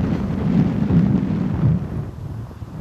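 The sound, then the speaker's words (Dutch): Strong wind gusts suddenly blow very hard, roaring and buffeting the microphone, a loud, low rumbling rush that surges in waves and eases slightly near the end, with no voices. “Oh, het waait ineens heel hard.”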